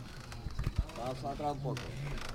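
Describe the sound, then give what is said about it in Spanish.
A series of rhythmic wooden creaks, strained and tonal, follows a couple of dull knocks, over a steady murmur of a crowd in the background; the creaking wood and silver of a pallium float carried in a religious procession. “y este es el sonido de la plata, el crujir de la madera”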